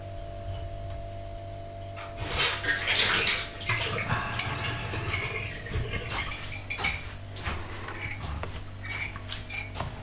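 Water runs steadily over a low constant hum, growing louder after the first couple of seconds, with scattered clinks of dishes and cutlery mixed into the splashing; no one speaks.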